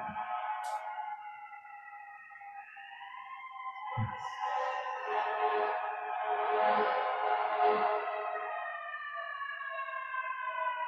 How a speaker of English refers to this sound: to hear the sirens continuing.